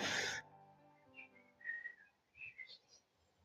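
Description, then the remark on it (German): A brief burst of noise opens, then birds chirp in a handful of short, high, whistle-like notes, fairly faint, drifting in from outside through a window left open to air the room. “Man könnte Vögel zwitschern.”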